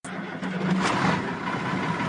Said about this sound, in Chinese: 上午九点，伴随着清脆的鸣笛声，满载着高山蔬菜的货车缓缓启动，将于六小时后抵达深圳，当晚就可以端上深圳人的餐桌。